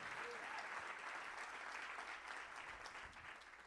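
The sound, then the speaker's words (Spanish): An audience at a church service claps for the Lord, a steady, dense wash of many hands sustained for a few seconds and tapering slightly toward the end, with no voices rising above it. “Alguien le da un aplauso al Señor que esté entendiendo lo que Dios está diciendo.”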